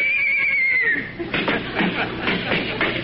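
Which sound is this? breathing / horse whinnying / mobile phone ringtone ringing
horse whinnying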